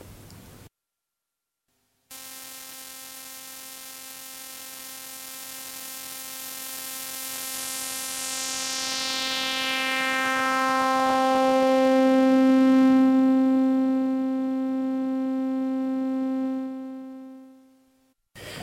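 A steady buzzy synthesizer tone passed through a bandpass filter whose centre frequency sweeps slowly downward, emphasizing brighter harmonics first and then settling on lower ones, swelling louder toward the end before cutting off; no voices.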